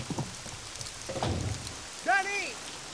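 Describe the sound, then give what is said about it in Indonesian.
Steady rain hisses evenly throughout, a dense wash of drops falling, with a few short vocal sounds rising briefly above it. “Kamu jangan hujan-hujanan. Masuk dulu ke mobil. Biar aku ambil payung ya.”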